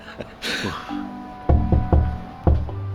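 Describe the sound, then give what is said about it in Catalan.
Knocking on the door of a mayor's office in a town hall, fairly loud: three quick thuds followed by a short pause and one more knock, with a low resonant hum underneath and a brief rustling noise just before. “Voleu dir que es pot picar la porta d'un alcalde així sense més ni més?”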